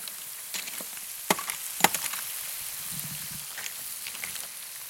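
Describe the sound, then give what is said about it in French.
Mussels cooked as a brasucade sizzle over hot embers near a beach at Narbonne, with a steady crackling hiss broken by a few sharp pops and snaps early on, and no voices. “entre les braises et l'eau, j'ai goûté une brasucade de moules tout près d'une plage narbonnaise”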